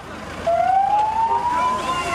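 An ambulance siren wails in, its tone climbing slowly and steadily, fairly loud, over a rumble of outdoor background noise, as the ambulance takes away a boy shot in the leg by soldiers.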